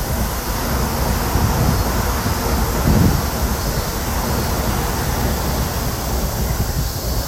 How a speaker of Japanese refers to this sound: 電車がまたね、通りまして、すごくね、線路の近く駅の近くなんですねこのこうあの神社が。なのでねたくさん電車が通ってしまうんですけれども。